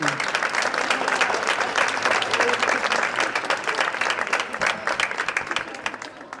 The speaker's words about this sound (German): Dazu möchte ich noch einmal Danke sagen an die Schülerinnen und Schüler der Caritas-Schule Wielandsgasse, die so tatkräftig diesen Pflegetanz-Flashmob überhaupt ermöglicht haben. Ein Applaus noch einmal für die Tanzenden.